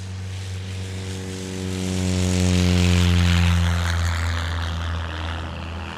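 A propeller plane's engine drones steadily with a strong low harmonic hum at a small airport, swelling louder as it passes and then easing off slightly, with a broad whooshing noise above.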